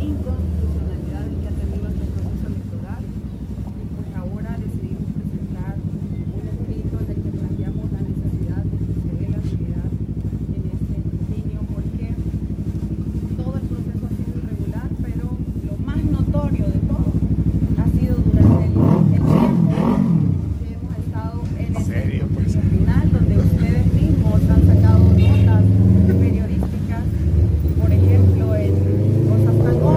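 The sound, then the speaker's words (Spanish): Steady rumbling street traffic with motorbikes fills the whole stretch, engines droning and a louder vehicle roaring past midway; muffled voices, including a woman speaking among the motorbikes, talk underneath, barely intelligible. “Voy a tratar de evitar eh, escuchar el ruido de la calle y escuchar lo que dice.”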